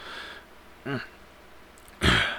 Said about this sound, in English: Jeez, I clear my throat.